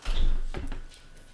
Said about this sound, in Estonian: sa võid avada seda ust.